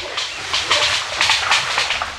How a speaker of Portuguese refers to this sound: Esse é um dos sons da queixada, que tem gente que chama aí de porco do mato, né? Mas na realidade a espécie não tem um vínculo com o porco que a gente está acostumado a ver por aí, né?